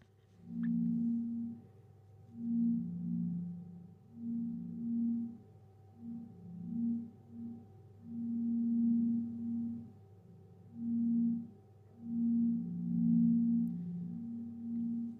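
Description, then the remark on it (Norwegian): Three low, pure sine-like tones, each linked to one of three performers trying to stand still, hum and swell in uneven overlapping pulses, fading in and out continuously against a faint steady high whine, with no voices. “Eh, det vi har gjort her, er at vi har koblet en lyd til hver person, så det er tre forskjellige toner vi hører, eh, hvor hver person har en tone.”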